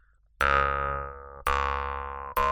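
A jaw harp is plucked three times, played with the mouth held open as its resonance box; each twang starts sharply and rings with a buzzy, resonant drone that slowly fades before the next pluck. No one speaks.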